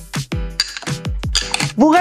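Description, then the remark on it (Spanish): Clattering knocks and bright clinks of glassware as a blended frappé drink with ice is served, several sharp hits in quick succession, with a brief voice sounding at the very end. “Vamos a servirlo.”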